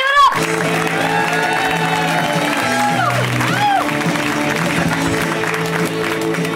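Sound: audience clapping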